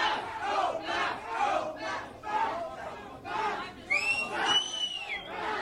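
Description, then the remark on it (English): A large crowd of Canadian high school students at a walkout chants "no more masks" in loud, rhythmic unison, each phrase pulsing about once a second, with shrill whistles or screams piercing through near the end. “They're saying no masks, no masks. No more masks. No more masks.”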